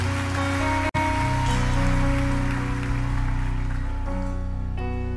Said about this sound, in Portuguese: Dá um forte aplauso ao Senhor Jesus, porque Ele é digno, Ele é merecedor da glória, da honra e de todo louvor.